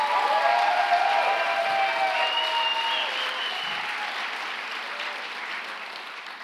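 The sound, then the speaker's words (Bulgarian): An audience claps steadily to give glory to God at an evening service, a dense sustained wash of applause that stays loud throughout and eases off slightly toward the end, with faint cheers or voices mixed in. “О, ако ръкопляскаш, ръкопляскай, като че го вярваш.”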